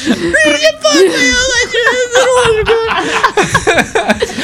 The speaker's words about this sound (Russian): Да понятно, а, все, вот видишь, дитё плачет из-за тебя.